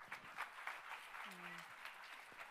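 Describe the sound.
A crowd applauds steadily throughout, a dense wash of many hands clapping at moderate volume, with a brief voiced cheer rising out of it partway through.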